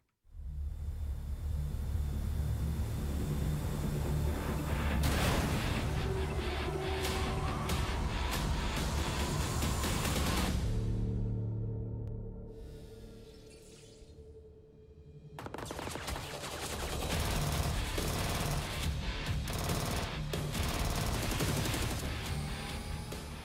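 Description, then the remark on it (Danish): Loud, dense soundtrack of a mobile game trailer with bursts of gunfire, rumbling engines of many cars and driving, frantic music, briefly dropping to a quieter, tense stretch before the barrage resumes. “Altså, jeg ved ikke, masser af skud, en masse biler og en, øh, en masse sådan hektisk musik.”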